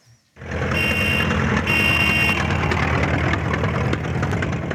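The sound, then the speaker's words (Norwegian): Busy street ambience of a city of millions, from an NRK radio theatre clip: a steady, dense roar of traffic and rumbling engines, with two stretches of high electronic beeping cutting through the din. No voices. “Det de hørte, var den herlige millionbyen.”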